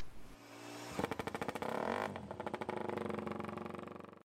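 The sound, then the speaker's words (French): A Moto3 racing motorcycle engine revs hard, its high, buzzing whine rising and falling in rapid rhythmic pulses as it accelerates through gears, loud and continuous with no talking. “Allez, et eh bien on enchaîne avec la moto 3 alors.”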